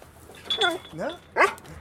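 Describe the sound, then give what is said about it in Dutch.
A search dog gives three short, sharp barks about half a second apart, fairly loud, signalling that it has found a bag, with a quiet pause after the last one. “Ik vertrouw op de hond. Kijk, dat laat ze nu ook, horen, hè?”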